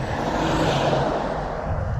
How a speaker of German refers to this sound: Ja, LKW.